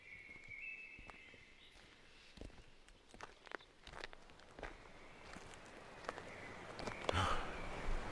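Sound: footsteps walking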